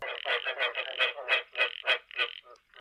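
A frog croaks in a quick, steady series of about ten raspy, buzzy pulses, fairly loud and alone with no talking, trailing off into fainter calls at the end.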